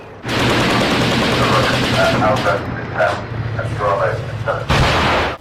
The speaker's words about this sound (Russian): Лондон объявил о передаче эскадрона, то есть 14 челленджеров. Минобороны Великобритании запустила видео с этими танками, на котором они едут по полигону и ведут огонь из пушек.